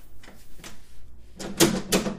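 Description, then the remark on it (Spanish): A door handle being turned as the door opens, a string of sharp mechanical clicks and rattles, two faint ones first, then a louder, busier cluster of clacks toward the end. “el sonido de la manija es bastante extraño.”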